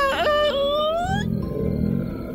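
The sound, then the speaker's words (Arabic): An eerie, ghostly wail climbs in pitch, then gives way to a low, rumbling growl that lingers at moderate loudness, made by a huge white ghost floating in the air. No one speaks. “ما هذا الصوت؟ وكأنه صوت أسد يسأر أو أو دب يزمجر أو شبح جوعاء”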